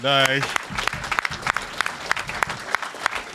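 An audience breaks into steady applause, dense overlapping claps at a moderate level throughout, opening with a brief sustained vocal cheer before the clapping takes over.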